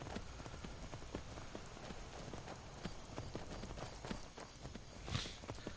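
Horse hooves clip-clop in a steady, continuous rhythm over a rough, noisy background, as a horse is ridden at a walk off the path across uneven ground in the video game Skyrim, with no one talking.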